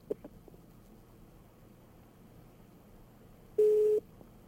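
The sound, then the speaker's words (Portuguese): A steady telephone line tone sounds near the end, loud and flat for under half a second, after a couple of short blips at the start over a low, quiet hum. “Quem tá com a gente na linha é o sinal de telefone.”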